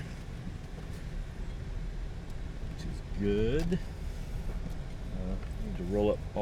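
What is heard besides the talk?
car interior noise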